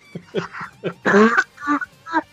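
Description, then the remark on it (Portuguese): A person coughs in a rapid series of short, harsh bursts, with one longer, strained, rasping cough in the middle of the fit. “Comecei a tossir já antes.”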